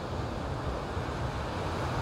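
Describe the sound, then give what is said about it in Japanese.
A steady, continuous wash of ocean surf at a rocky seaside shore, with a low rumbling roar and some wind buffeting the microphone. No one speaks. “今日はちょっとね外にいるので波の音と風の音が少しうるさいかもしれないですどうかな違和感ありそうだったら次回からは改めようかなって思うんですけど海辺に来てちょっと岩場があるのでそこで今ゴローンってしながらライブを収録しています”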